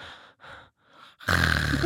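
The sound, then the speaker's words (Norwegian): A person imitates a man's snoring, which is not through the nose: three raspy, normal-sounding breaths, then a sudden loud, rough throaty snort as if a flap drops shut at the back of the throat. “Så plutselig hører jeg det er som en flapp går ned bak i halsen.”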